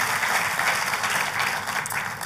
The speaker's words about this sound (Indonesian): Ayo buat Tuhan kita kita kasih tepuk tangan yang paling meriah.